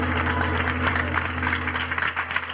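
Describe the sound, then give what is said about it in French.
A room full of people clapping steadily, a dense, even patter of applause that holds at a fairly constant level throughout, with a low electrical hum underneath. “Applaudissements Merci à tous”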